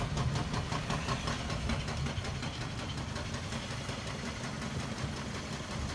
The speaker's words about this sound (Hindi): normal वाली JCB चल रही है इस वजह से बहुत उबड़ खाबड़ रास्ता हो रहा है